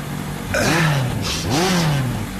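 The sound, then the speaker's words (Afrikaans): A fancy car's engine revs twice in quick succession, each rev climbing sharply in pitch and then winding back down, loud, with no voices. “Ek het jou nou 'n fancy kar sien verbykom, so twee blokke terug.”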